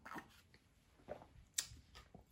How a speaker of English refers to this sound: Excuse me. Let me have a sip of water over here. Um, maybe I get too excited.